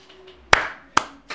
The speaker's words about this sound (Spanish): Gracias. Tuve que empezar yo el aplauso porque sentía que no me lo iban a dar, entonces eh, metí ahí rapidito